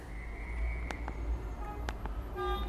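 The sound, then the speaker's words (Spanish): Muffled street traffic outside an office rumbles steadily in the background, with a few sharp clanks and a brief car horn toot near the end, as if heard through a window. “Ya empieza a no ir un poquito de tráfico en mi oficina. Se escucha de fondo, ¿verdad?”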